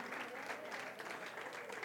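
Steady audience applause for the fathers, a dense patter of many hands clapping at an even loudness throughout, with no voices standing out.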